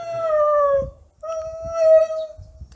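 A dog howls twice in long, sustained, wavering notes, fairly loud, with a short pause between them, answering a few other dogs barking in the area; faint, low, muffled bursts in the background.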